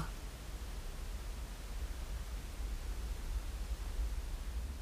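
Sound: ocean waves rushing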